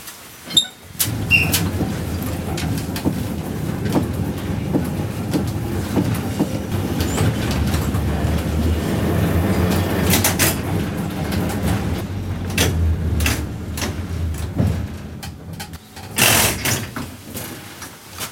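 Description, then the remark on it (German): A vintage Braunschweig tram motor car rolls along rails on a tram club's grounds, where three rails lie side by side, with a steady low rumble, punctuated by sharp clacks and rattles over the track joints, continuous with no talking. “Fahren wir mal weiter.”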